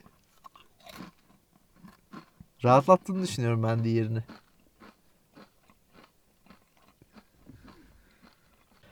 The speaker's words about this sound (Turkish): öteki çiğneme sesi var şu an Hı. elimizde.